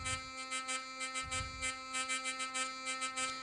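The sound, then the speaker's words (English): A hurdy-gurdy's sustained drone with its buzzing bridge, called the dog, activated by the third string as the crank is turned with pressure applied, rattling in quick rhythmic pulses, a steady, fairly loud buzz repeating roughly three times a second, with no voices. “It activates what's called the buzzing bridge or the dog. So when I turn the crank and I apply pressure,”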